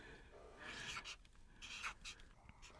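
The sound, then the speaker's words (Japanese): Continuous scratchy strokes of a pen on a stiff white shikishi card, with short bursts and pauses as lines are drawn, fairly quiet, without any talking. “白いな色紙をそのラジオを聴いてる方に見せてあげたいな縦横にこう使う人初めて見たな”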